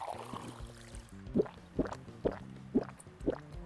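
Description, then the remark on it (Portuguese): Drinking sounds: five steady gulps of water, evenly spaced about half a second apart, with faint liquid sloshing in between and no talking. “Hoje eu tô aqui com uma água.”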